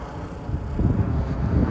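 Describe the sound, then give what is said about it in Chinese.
A steady low roar of an airplane passing overhead, a broad rumbling drone that swells slightly louder partway through, with no voices. “又有飞机飞过了，我我在飞机飞过的时候要不要说呢？”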